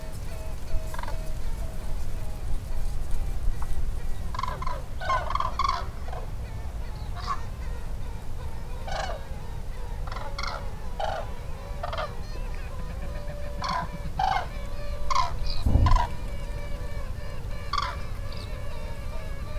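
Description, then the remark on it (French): Cranes call in night flight overhead while purple swamphens answer with loud, honking cries, repeated bursts of calls over a steady low rumble of background noise, lively throughout, at the Étang de Scamandre in the Camargue. “Des grues passent en vol de nuit et déclenchent une belle réaction sonore des Taleb Sultan en fond.”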